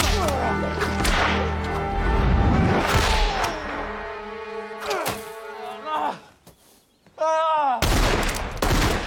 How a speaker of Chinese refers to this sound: 听到枪声，牙医火速赶来。